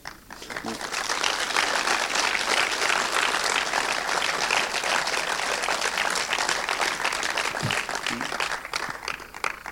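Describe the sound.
Sustained audience applause at a film screening, a dense crackling wash of many hands clapping at steady loudness for nearly ten seconds, with a few faint voices showing through underneath.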